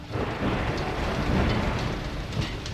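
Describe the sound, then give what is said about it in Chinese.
Heavy rain pours down in a steady, dense hiss, with a low rolling rumble of thunder beneath it throughout. No voices are heard. “那天路上下着雨，雨滴击打在脸上”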